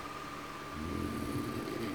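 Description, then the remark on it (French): An electric fan whirs steadily on a very hot night in a guest-house bedroom, a continuous noisy hum with a thin tonal whine and a clattery, saucepan-like rattle that grows slightly louder partway through. No one speaks. “Les ventilateurs ventilateur qui fait un bruit de casserole.”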